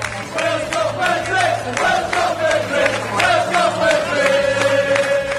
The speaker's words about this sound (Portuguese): Olha só os gritos da torcida do país de Gales pro Gareth Bale, ó.